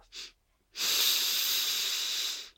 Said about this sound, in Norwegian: Og pust inn godt på fire, altså